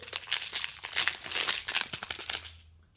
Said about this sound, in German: Jetzt hier nochmal ASMR-Knisterpapier. So, hier habe ich es ausgepackt.